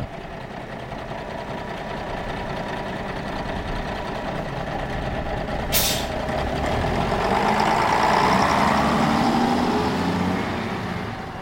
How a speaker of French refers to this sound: Le regard noir, sa route grimpe dans un bus vert qui l'emmène à la campagne, au nord de la ville.